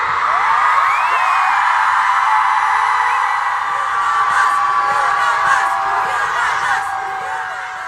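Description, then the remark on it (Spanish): A large crowd at a rally shouts and whoops loudly together, a dense sustained roar of many voices with rising yells and cheers, staying strong throughout before easing slightly near the end. “Vamos a gritar fuerte para que nos escuche el presidente y nos escuchen en todo el mundo.”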